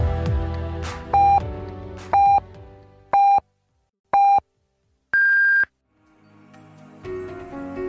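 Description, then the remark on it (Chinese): A radio time signal marking twelve noon Beijing time on Chongqing University of Posts and Telecommunications' Sunshine Campus Radio: four short, evenly spaced mid-pitched beeps a second apart, then a longer, higher final tone, ringing out loud and clear between faint background sound. “现在是北京时间正午十二点整，您收听到的是重庆邮电大学阳光校园广播台。”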